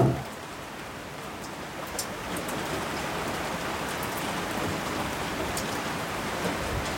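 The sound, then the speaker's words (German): Steady rain pattering on a surface, a dense even hiss with occasional sharper drop ticks, continuous, with no voices. “Es hat geregnet in der Nacht. Das Gefühl von Sicherheit, Regen, die Decke.”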